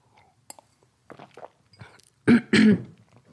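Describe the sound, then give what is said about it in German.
Someone takes a sip of water: soft lip smacks and swallowing noises, then two loud, rough throat-clearing coughs in quick succession. No one speaks. “Und wie ich schon angekündigt habe, werde ich dir nach einem Schluck Wasser, Moment,”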